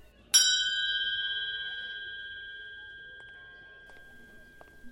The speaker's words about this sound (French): Un coup de sonnette bref au 221 Baker Street du bout de mon parapluie.